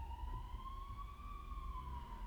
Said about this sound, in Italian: Altre sirene. Non posso farvi sentire tutte le sirene, però...